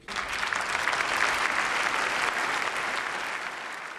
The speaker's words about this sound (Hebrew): אה, אתה יכול לשמוע את אה, מחיאות הכפיים שזכה להם הנשיא איראן.